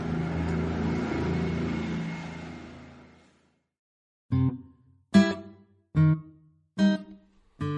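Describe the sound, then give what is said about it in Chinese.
A car engine roars steadily and then fades out over about three seconds as the vehicle speeds away. After a short silence, five short punchy tonal hits follow. “他们开着车飞快的走了。”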